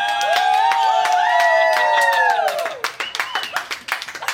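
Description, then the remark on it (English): A crowd bursts into dense, steady applause mixed with loud cheering and shouting voices, then the clapping thins out into scattered individual claps toward the end. “right, the applause.”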